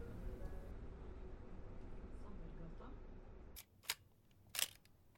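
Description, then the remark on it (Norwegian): Steady rumbling background noise cuts out, then the shutter of a Nikon FE analog film camera snaps with a few sharp mechanical clicks as the film is wound on, each quick and crisp in the quiet. “Det her er lyden av et analogt kamera.”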